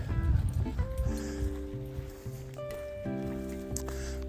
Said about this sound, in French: Oh Pardon, il y a un chien qui vient de me taper dans les cuisses.